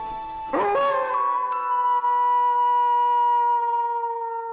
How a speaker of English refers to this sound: Wolf howls in the distance.